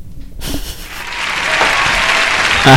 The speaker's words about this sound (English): Round of applause for Rom uh, being beaten.